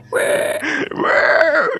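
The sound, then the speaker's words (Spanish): A voice imitates pig screams: two loud, harsh, strained squeals with a gravelly, grunting texture, the second longer and wavering in pitch. “Gritos de puerco Gritos de puerco.”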